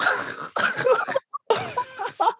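A burst of harsh, breathy coughs runs into choppy laughter-like bursts, with a short pause in the middle before another strained, convulsive fit. Fairly loud, no clear speech.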